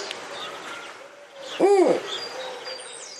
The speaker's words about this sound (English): Number one, the snowy owl.